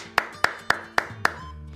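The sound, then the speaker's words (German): Five crisp hand claps in a steady, evenly spaced rhythm, fairly loud, with no voices over them. “Ach, wir müssen ja auch noch klatschen.”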